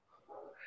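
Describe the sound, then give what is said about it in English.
A dog barks once in the background at home, a short muffled woof with no other sounds around it. “Any chance you can hear my dog right now?”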